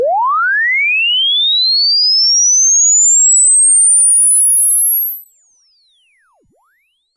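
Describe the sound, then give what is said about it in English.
A sine sweep test signal for capturing an impulse response, heard in isolation: a single pure tone sweeps steadily upward from a low hum to a piercing high whistle over about seven seconds, loud and constant in level, then cuts off abruptly. “For this experiment we'll use a sine sweep.”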